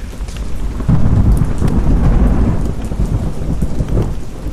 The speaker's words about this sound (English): I hope the rain lets up soon, though. It's freezing.